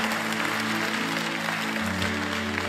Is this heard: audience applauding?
yes